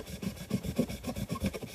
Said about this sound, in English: I'm also cutting things with my pocket knife. By things, I mean a cardboard box. Cardboard is really easy to cut.